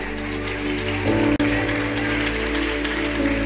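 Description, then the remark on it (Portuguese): An audience applauds the word of God during a sermon in a steady, dense wash of clapping that holds for several seconds, with sustained low keyboard-like tones underneath and a brief dropout partway through. “Forte esse aplauso à palavra de Deus.”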